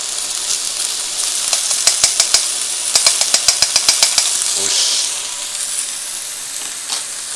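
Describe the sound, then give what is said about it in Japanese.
Steady, loud sizzling of back fat and garlic frying in a wok, with a run of quick metallic scraping clicks from a utensil partway through, then the hiss continues more evenly. “うわくっさ 背脂投入した背脂にんにくを投入しましたものすごい匂いだよ”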